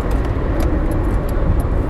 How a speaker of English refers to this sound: wow, this stupid truck's not in front me.